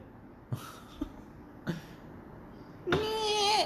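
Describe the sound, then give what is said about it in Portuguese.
A voice imitates an old wine-cellar door creaking open: a few short breathy, throaty bursts, then a sustained strained wavering vocal tone near the end, moderately loud. “eu não sei fazer esse barulho. Faz o barulho de uma porta abrindo, velha.”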